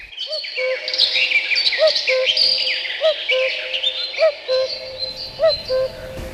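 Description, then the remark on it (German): A common cuckoo calls its repeated two-note cu-coo at a steady pace over a dense chorus of other songbirds chirping and trilling, with no voices present. “Ja, der Kuckuck ist ein ganz, ganz typischer Zugvogel, der ebenfalls in Afrika überwintert.”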